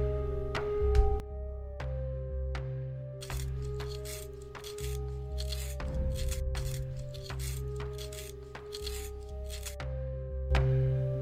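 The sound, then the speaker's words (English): A pencil being sharpened, its dry grinding scrapes repeating in a steady rhythm of short strokes over a constant low hum, with no voices. “Um, are you gonna do anything but sharpen that pencil?”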